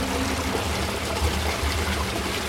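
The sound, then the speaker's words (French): Fast-flowing water rushes steadily and loudly down a steeply sloping street, knee-deep with a strong current, a dense continuous roar with a low churning rumble underneath and no pauses, with no voices. “Et là, comme la rue est fort en pente, il y a un débit euh, dingue.”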